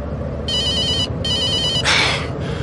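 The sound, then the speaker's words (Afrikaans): A mobile phone in a left trouser pocket rings in two electronic bursts of trilling tones separated by a short pause, followed by a brief rustle, with steady low background rumble throughout. “Waar het ek die simpel foon gesit?”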